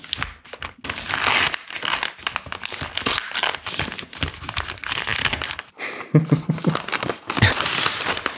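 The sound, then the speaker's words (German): Steady crinkling and rustling of a Dresdner Essenz bath additive packet being opened, with irregular crackly bursts and brief pauses over about eight seconds, no talking. “Das müsste so ein bisschen knistern. Das hier? Rascheln.”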